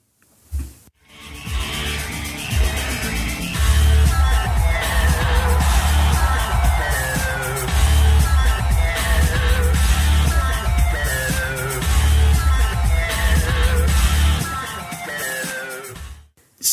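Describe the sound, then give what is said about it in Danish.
A live electronic dance mashup of two songs plays loud and steady, with pounding bass, a driving beat and repeating distorted synth riffs, while faint crowd cheering sits beneath the music. “jeg synes faktisk, at vi skal høre en bid af …-versionen fra ja. …”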